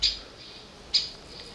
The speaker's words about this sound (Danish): Nede foran milen i østlig retning er der en lille lund med frisk grønt skov og buske. Man kan høre en fugl derinde, der ligesom svarer ekkoet af sin egen kalden.